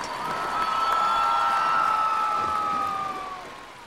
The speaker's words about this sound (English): Visitors to the lake clap and cheer at the sight.